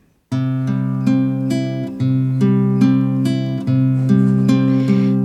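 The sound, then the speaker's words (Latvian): Instrumental song intro with sustained, layered synth or organ-like chords and bright repeated note attacks, steady and fairly loud, no voices. “un varbūt, lai pārdomātu evaņģēlīju, tad lai skan dziesma.”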